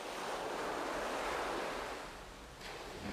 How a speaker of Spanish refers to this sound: Me gusta el ruido de las olas y el cielo es increíble se ven muchísimas más estrellas que en la ciudad.